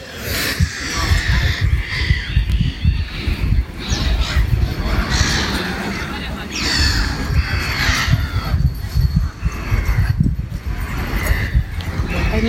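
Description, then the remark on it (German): Harsh, repeated seagull calls ring out over a steady rumble of wind or surf, the cries coming in irregular bursts. “Ah, die Möwen. So schön, die Geräusche.”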